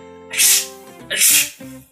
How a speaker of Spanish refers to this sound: Estornudaron sus amigas. Y venga a estornudar todas a la vez.